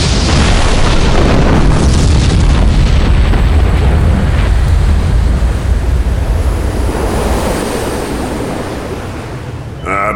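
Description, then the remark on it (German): A deafening explosion of a ship blowing apart after a chain reaction of explosions spread through it, bursting out as a dense, roaring wall of noise with heavy low rumble, holding loud for several seconds before slowly fading toward the end. No voices. “Schließlich riss das Schiff mit einem grellen Blitz auseinander und verschwand im leuchtenden Kugelball einer ohrenbetäubenden Explosion.”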